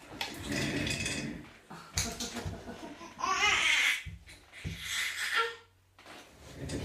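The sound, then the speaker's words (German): A baby fusses and whines in several uneven bursts, its high, wavering cries broken by short pauses and babbling-like sounds. “Mein Kind weint oder quengelt ein bisschen.”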